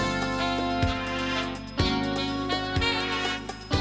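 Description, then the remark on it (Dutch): A bright, upbeat new TV game show theme tune plays on its own, with sustained chords and punchy accents landing roughly once a second, loud, with no voices. “Nou ja, er kwam dus een nieuwe tune en die klonk zo.”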